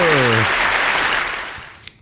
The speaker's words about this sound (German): auch dafür einen fetten Applaus.